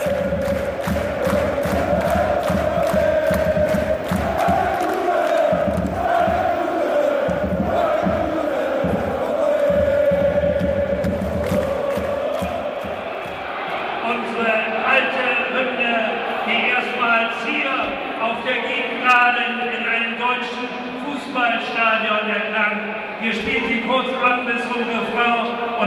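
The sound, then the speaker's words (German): A crowd of over 26,000 spectators at the Millerntor-Stadion in St. Pauli chants together in loud, rhythmic unison before a second-division match of FC St. Pauli on Sunday, 3 February 2013, voices swelling and pulsing steadily for about twenty-five seconds, the tone shifting to a higher, more scattered roar in the second half. “dann holen wir den Chor der über 26.000 Zuschauer, die heute dieses historische Spiel miterleben werden.”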